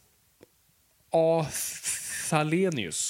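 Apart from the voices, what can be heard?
sneeze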